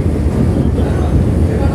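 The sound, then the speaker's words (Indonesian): Steady, loud wind buffeting the microphone over a low engine-like rumble, a continuous roar with no breaks, on a boat in the middle of the sea heading toward Bakahuni, under cloudy but not bad weather. “gue nih udah lagi arah ke Bakahuni gue lagi di tengah laut cuaca juga eh, nggak uh, nggak buruk banget nggak buruk lah”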